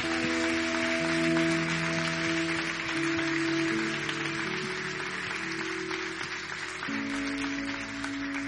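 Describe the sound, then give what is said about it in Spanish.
An audience at a Christian sermon claps steadily and densely for several seconds as applause to the Lord, a continuous wash of applause layered over sustained organ-like chords that shift pitch partway through. “Que alguien diga amén y le dé un aplauso al Señor.”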